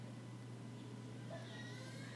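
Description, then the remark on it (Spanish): A faint, muffled wail of a young daughter crying upstairs, as if through walls, rising and wavering briefly over a steady low hum with no one talking nearby. “no sé si pueden escuchar a mi hija que está llorando allá arriba.”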